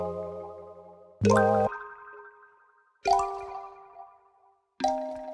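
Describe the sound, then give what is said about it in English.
Soft sine-wave synth seventh chords with a bit of white noise synth ring out in three separate stabs, backed by plucky vibraphone-like sounds giving each a bright plucked attack before sustaining and fading; clear, with no voices. “So we've got that just on a basic kind of sine wave with a bit of white noise synth, and we're backing it up with some cool plucky sounds like vibraphone.”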